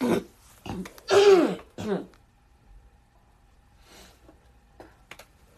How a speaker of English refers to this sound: apologies, y'all. Didn't mean to clear my throat in your ear.